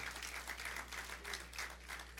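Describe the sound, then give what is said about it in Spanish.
A crowd applauds steadily, many hands clapping together in a dense, continuous patter with a low hum underneath, no voices rising above it. “Y si usted está aplaudiendo, usted está creyendo lo mismo porque se necesita la fe.”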